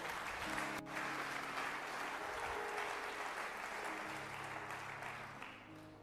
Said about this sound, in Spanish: Dele fuertes palmas a Dios.